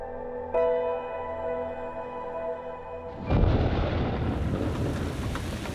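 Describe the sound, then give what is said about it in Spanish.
A sustained musical drone holds for a few seconds, then a loud crack of thunder breaks in and rolls into a deep, rumbling storm wash with rain-like hiss. “Una tarde tuvimos que regresar a casa antes de tiempo debido a una tormenta.”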